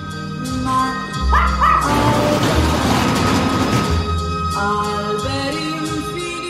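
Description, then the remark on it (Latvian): Dogs barking and yelping amid a busy, layered soundscape, with a dense rumbling burst in the middle and tonal, sustained sounds running underneath throughout. “Un, kas interesanti un neparasti, īpašs palmas zars tika arī filmas eh, suņu ansamblim.”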